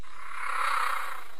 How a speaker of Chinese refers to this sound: 哈，这是石虎的叫声啊！我以为是像猫咪一样可爱的喵喵叫，哎。哇，居然是这样的声音哦！其实有点像小小老虎啊，